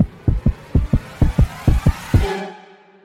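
A fast, thumping heartbeat sound effect representing a flatfish's heart beating fast under the sand when a shark is near: four quick lub-dub pairs of deep beats in a steady rhythm, fairly loud, ending in a brief fading hum.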